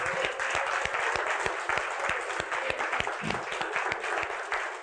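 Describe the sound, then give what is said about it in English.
An audience applauding steadily to praise the Lord at the end of a sermon, many hands clapping together in a dense, sustained wash of sound that stays loud and even throughout, with no voices standing out. “Come on, let's give the Lord a hand of praise.”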